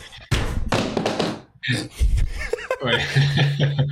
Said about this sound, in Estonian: niimoodi mu tool, tooli käe pide läks praegu pooleks no, sihuke pinge oli peal. sihuke pinge oli peal ja nüüd läks just jõuga, nüüd on see pingelangus on nii suur, vaata.